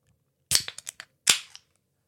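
A drink can cracks open with a sharp metallic pop and a few quick clicks, then a second burst and a short fizzing hiss that fades out. Nobody speaks.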